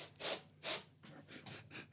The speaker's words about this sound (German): Compressed Gas Duster. Ich sprühe jetzt mal.